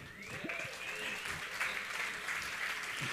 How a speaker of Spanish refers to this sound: Tomen nota, un aplauso para los matrimonios que están aquí.